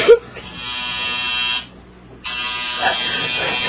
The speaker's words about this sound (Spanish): ¿Es el timbre de fuera? ¿Quién puede ser?